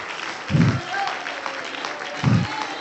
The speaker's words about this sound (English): Come on, let's stand to our feet and let's clap our hands. Come on, let's stand to our feet and clap our hands.